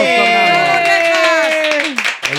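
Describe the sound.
An audience applauds steadily for a couple of seconds while a loud, sustained voice rings out over the clapping, then the noise thins into a few scattered claps at the end.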